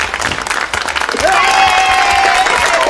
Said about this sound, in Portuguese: Palmas pra ele, cara. Palmas, ah. palmas pra ele aí. Palmas, vai, palmas.